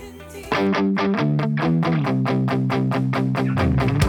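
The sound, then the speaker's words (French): A punk rock song from a new EP bursts in after a brief quieter lead-in: loud, distorted guitars over a steady, driving drum beat with sharp regular hits, no vocals yet. “bon, bref, notre ami, ce vieux punk, sort un nouvel EP”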